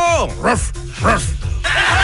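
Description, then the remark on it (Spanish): A dog barks several times in quick succession, short rising-and-falling yaps that are fairly loud, with a steady background hum between them. “Mi estimado seguridad, saludos al perro, perro.”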